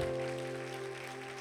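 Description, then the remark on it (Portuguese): An audience applauds Jesus in a steady, even wash of clapping over a sustained, held keyboard chord, with no talking. “Você pode aplaudir Jesus então?”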